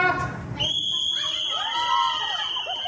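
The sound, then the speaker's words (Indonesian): A single long, shrill whistle blast holds one steady high pitch for over two seconds, starting just after a brief voice, signalling the start of a shopping race at Bintaro modern market in South Tangerang, with excited voices rising underneath it. “Oke, dengar suara peluit, langsung lihat, kita lihat uh, teman nanyanya.”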